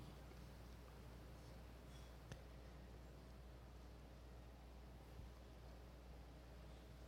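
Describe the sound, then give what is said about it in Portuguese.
A steady, low air conditioner hum fills the silence, a faint continuous whoosh with a soft low drone underneath and no voices or other sounds. “Você está nesse silêncio que eu estou ouvindo o som do ar condicionado.”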